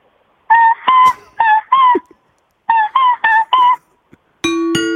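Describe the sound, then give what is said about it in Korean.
A voice imitates an old rubber bicycle horn: two quick honks, a pause, then a run of four nasal, buzzy squeezes, ending with a longer, steadier honk. “자, 옛날 자전거 고무로 된 거. 요즘은 이렇게 쇠로 돼 있는데 고무로 된 거. 누르는 거 말씀하시는 거죠?”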